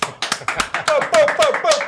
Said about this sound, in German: Herzlichen Applaus